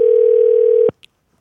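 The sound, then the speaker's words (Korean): A steady, low-pitched telephone ringing tone as a radio host phones a listener, an air-conditioner technician, holds evenly for just under a second, then cuts off abruptly, followed by a single faint high click. “1560님 전화 한번 걸어주시기 바랍니다.”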